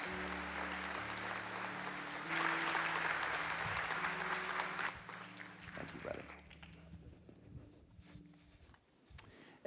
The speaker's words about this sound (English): Would you guys give these one more round of applause